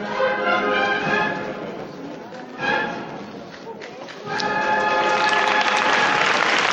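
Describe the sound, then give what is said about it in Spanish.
A large crowd in Jaén applauds as the procession float of the Christ is lifted, in a dense, continuous wash of clapping that dips briefly, then swells back up louder and fuller toward the end. “Y el pueblo de Jaén que responde con este aplauso.”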